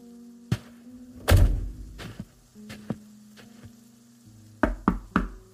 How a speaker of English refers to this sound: Knocking on the door of the ground floor apartment, a familiar voice came from inside.